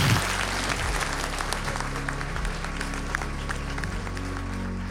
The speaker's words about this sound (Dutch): Geef het hele panel een warm applaus. Dank jullie wel.